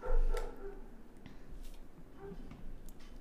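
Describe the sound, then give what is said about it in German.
A dog gives one sharp, fairly loud bark at the start, followed by a few softer yips and whimpers against a quiet, slightly noisy background. “War das dein Hund, der im Hintergrund beit hat?”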